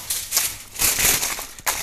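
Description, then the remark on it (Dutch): Kitchen foil, being put under a chicken fillet taken from the freezer, crinkles and crackles in a few irregular bursts, bright and papery, with short pauses between handfuls of rustling. No one speaks. “folie onder doen.”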